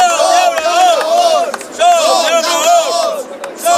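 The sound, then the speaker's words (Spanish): About 250 protesting farmers at the port of Castellón, trying to block access to the facilities, shout "Somos Labradores" in unison while burning tires: a loud, steady chant of many raised voices rising and falling in rhythmic bursts without pause. “al grito de Somos Labradores han quemado neumáticos, obligando también, en este caso, a intervenir a la policía.”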